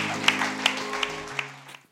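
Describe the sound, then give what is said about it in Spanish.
A burst of crowd applause with a few sharper claps standing out at a steady pace, over a low sustained musical tone, gradually fading out toward the end. “Date un aplauso que te aprendiste los 10 mandamientos.”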